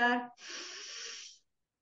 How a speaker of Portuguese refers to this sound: Vamos tentarem lá. perceber se, quando fazem a inspiração e a expiração, se vocês estão a respirar pela parte torácica ou pela parte abdominal. Vamos lá aqui fazer, está bem? Este exercício, portanto, inspirar